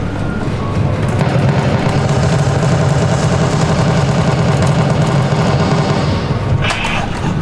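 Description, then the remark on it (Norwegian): An arcade shooting game, played at an arcade by someone holding two large gun controllers and destroying robots, blares a dense, continuous roar of rapid mechanical gunfire and deep rumbling effects that stays loud throughout, with no one talking over it. “Her er vi da ved noen som spiller Terminator Salvation-spillet her på Arkaden med to svære geværer i henda.”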